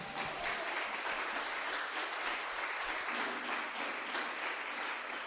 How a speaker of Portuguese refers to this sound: Agora pode aplaudir o Senhor.